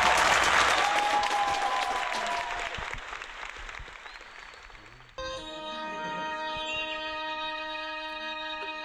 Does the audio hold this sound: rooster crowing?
no